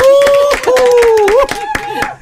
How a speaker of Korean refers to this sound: 자 일단 박수 한번 올릴게요.